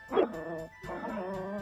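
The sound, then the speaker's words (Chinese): A small lion dog named Wangwang, running ahead, yaps once sharply, then lets out a run of drawn-out, whiny, high-pitched barks with brief gaps between them, moderately loud and with no one talking. “小狮子狗旺旺在前面跑着，”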